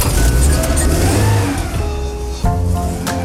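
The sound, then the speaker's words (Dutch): The loud, rough engine of a small, handy four-wheel-drive military vehicle on Vlieland runs, revving and straining with a gear change partway through, then picking up again, steady and throaty throughout with no one speaking. “aan het stuur van een handzaam vierwiel aangedreven luidruchtig legervoertuigje”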